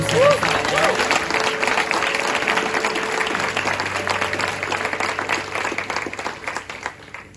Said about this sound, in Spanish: Y puedes darle un fuerte aplauso a Jesús.